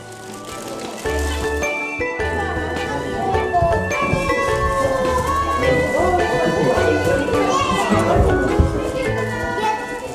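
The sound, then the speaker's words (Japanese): High-pitched voices of young children playing happily at a Setsubun bean-throwing event chatter and squeal continuously, fairly loud, with a steady tonal backdrop underneath. “そして子供たちが楽しそうに遊んでいると”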